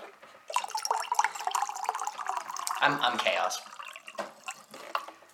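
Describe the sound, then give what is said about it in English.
Water pours steadily into a cup for a few seconds, a bright splashing trickle that tapers off, with a voice talking briefly over it. “Drink filtered water.”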